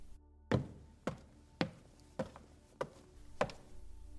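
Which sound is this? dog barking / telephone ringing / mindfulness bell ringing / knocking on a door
knocking on a door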